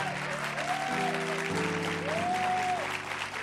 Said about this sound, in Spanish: Pedimos que se desaten milagros, milagros, milagros, milagros, Señor. Milagros para la gloria eh, de tu nombre. Y si usted lo cree, aplauda muy fuerte.